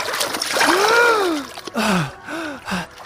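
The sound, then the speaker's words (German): Water splashes and sloshes in a swimming pool as someone dives to the bottom for a ring, a steady wash of noise with short bursts, while excited wordless voices rise and fall over it. “Ich habe den Ring ertaucht. Nur irgendwie, wenn ich bis zum Boden vom Schwimmbecken tauche, kriege ich Druck in meine kleinen Schweineohren.”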